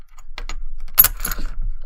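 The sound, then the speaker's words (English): Metal coins clink and jingle as they are stacked, starting with a few light taps and then a denser cluster of bright clinks. “Stack them shits.”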